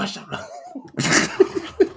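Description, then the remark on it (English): A person lets out a sudden harsh cough about halfway through, followed by a couple of short, sharp bursts of breath or laughter. “one of the worst feelings in the world is trying to hold in a cough.”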